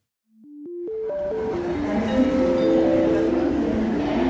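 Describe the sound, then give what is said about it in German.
An electric ICE train pulls away, its motor whine climbing and falling in distinct stepped tones over a swelling, steady rumble that grows louder and fills out as it gathers speed. “Und jetzt? Abfahrt.”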